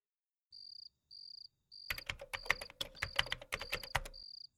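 Rapid clicks of a woman typing on a phone to update her Facebook relationship status, in a quick irregular burst, with steady high-pitched chirping pulses before, during and after.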